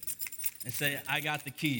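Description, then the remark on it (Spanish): A crowd takes out and rattles many sets of keys at once, a bright, continuous metallic jingling spread throughout, with a person's voice speaking over the clatter. “Saca sus llaves, ponlos enfrente de ti.”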